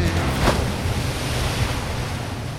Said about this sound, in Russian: Волны, догоняя волны, налетели словно пролетели.